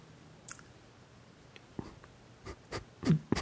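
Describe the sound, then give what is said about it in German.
A handful of soft, irregular keyboard taps against an otherwise quiet background, spaced out at first and then clustering into a few quicker clicks toward the end. “Ich glaube, das ist ganz cool, wenn da im, im Podcast, wenn das die Leute dann hören, so ein bisschen Tippen drin ist und so.”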